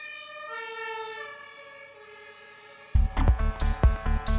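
An emergency vehicle siren wails steadily for a few seconds, its pitch sliding slightly as if passing by, before louder, busier sounds abruptly take over. No one speaks.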